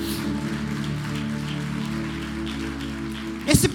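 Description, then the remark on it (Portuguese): An audience claps for the Lord in a steady, dense patter that runs throughout, over sustained low musical tones, with a brief louder swell of clapping near the end. “Alguém pode dar um forte aplauso ao Senhor nessa noite?”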